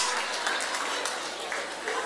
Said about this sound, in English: Yay! Give them a clap. Oh, we got some people. Thank you very much.